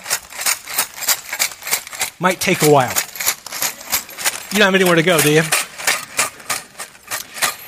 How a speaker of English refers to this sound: Now, I know uh, you're thinking, well, can you make an alarm clock by just shaking all the pieces in the bag?